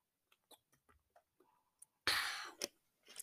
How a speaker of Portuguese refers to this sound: Golinho d'água, golinho d'água.